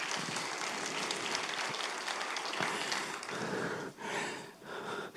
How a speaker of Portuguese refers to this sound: Uau, mais uma vez para Jesus e para você, dê uma forte salva de palmas.